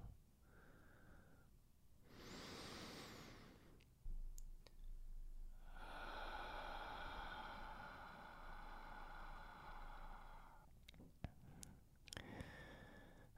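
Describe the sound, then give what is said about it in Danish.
A final slow, deep breath drawn in with a soft rushing sound, then a long, steady exhale lasting several seconds, followed by a few faint clicks and no talking. “Så sagde jeg en sidste dyb vejrtrækning på den her måde.”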